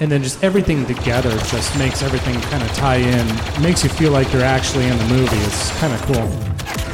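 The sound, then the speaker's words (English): Rapid video game laser blasts and bursts of explosions crackle steadily beneath a man talking continuously, the shots firing in quick, irregular volleys at moderate loudness throughout. “you know the the actual effects of the uh, the laser beams and things blowing up.”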